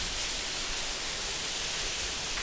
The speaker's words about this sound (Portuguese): Eu ia falar de outra coisa, mas eu tô aqui olhando a chuva e. Nossa, cheiro de chuva é outra coisa também que eu gosto pra caramba.